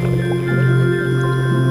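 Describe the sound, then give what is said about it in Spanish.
Muffled underwater ambience with a steady low hum, broken by soft, gurgling bubbles rising from a swimming scuba diver at an even, continuous loudness, with no voices. “Al nadar entre el agua, burbujas brotan de mí.”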